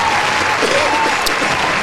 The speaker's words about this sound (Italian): Prego, applausi cortesemente. Grazie, ecco.